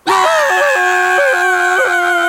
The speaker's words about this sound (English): Why are we screaming? I, I, I am sorry.